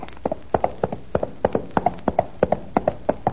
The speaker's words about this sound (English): I see Don Diego's horse approaching.